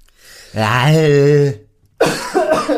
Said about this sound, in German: ich musste husten.